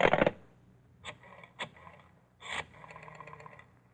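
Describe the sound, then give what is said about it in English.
A rotary telephone being dialed to call the police: a few sharp clacks and rattles, then a quick run of fine mechanical clicks as the dial spins back. No one speaks. “Then you reach for the phone.”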